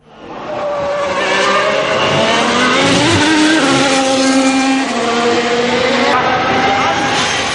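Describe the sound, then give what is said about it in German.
A race car engine in a racing simulator at Zurich Airport roars loudly and continuously, its pitch climbing and dropping as it revs through the gears for several seconds, dominant. “ab Montag am Flughafen Zürich, genauer gesagt im Circle, in einen Rennsimulator steigen und das Motorsportgefühl selber erleben.”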